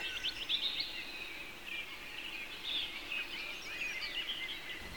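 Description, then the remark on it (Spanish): Birds chirp and twitter steadily throughout in a garden, a dense chorus of small high calls over a soft, even outdoor ambience with no one speaking. “Estás viviendo la vida cottagecore con la que soñabas y te encuentras tumbada en el jardín con el amor de tu vida mientras la brisa acaricia tu pelo y los pájaros alzan el vuelo a tu alrededor.”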